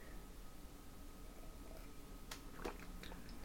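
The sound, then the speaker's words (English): A quiet sip of tea: a short slurping burst with a faint wet click, set against a low steady hum and no talking. “Somebody take a guess while I take a little sip of tea here.”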